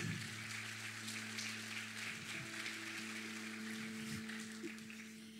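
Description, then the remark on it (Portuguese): A crowd claps steadily for several seconds, applauding Jesus for a woman's life, a dense, even patter of many hands with a low electrical hum running underneath and no voices. “Vamos aplaudir Jesus pela vida dela.”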